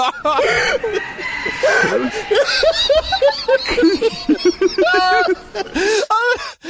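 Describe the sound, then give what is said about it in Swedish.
A rooster crows repeatedly while its owner, a man, laughs loudly alongside it, the shrill crowing and hearty laughter overlapping and growing more intense and shriller over several seconds. “Jag vet, men alltså, det är också som hans så här, eh, liksom, tuppgalningar bara liksom eskalerar, Ännu gällare och gällare.”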